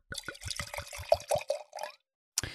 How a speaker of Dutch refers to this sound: Dus ik zal hem even een, eh, glas voor je inschenken. Nou, we drinken rode wijn.